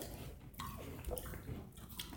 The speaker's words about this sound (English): Sorry, I gotta chew my apple first. Talking with my mouth full. I admit I've had better Granny Smiths, but this one wasn't bad because they're usually consistent, plus or minus, you know, a certain range. It was crunchy.